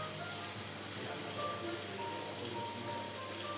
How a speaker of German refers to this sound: Hört ihr das Rauschen? Das sind Aquarien im Hintergrund.